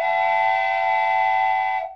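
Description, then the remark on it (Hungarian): A loud, sustained train whistle blows continuously for about two seconds with a steady, multi-toned chord, then cuts off abruptly, with no voices present. “Mondjuk egy vonaté.”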